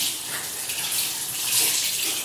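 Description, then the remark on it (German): Cold tap water runs steadily and splashes into a basin while lemons are being rinsed, a continuous bright hissing spray with no talking. “Dann spritzt das so. Hält dir ein bisschen runter. So. Das ist ja kalt. Das wird gleich warm.”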